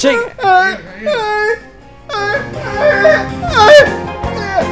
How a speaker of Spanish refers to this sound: Está llorando.